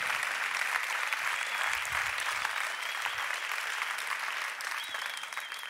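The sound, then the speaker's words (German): Steady audience applause fills the whole stretch, a dense crackle of many hands clapping at an even level, with no voices rising above it and a slight thinning toward the end. “Lieben Applaus für dich.”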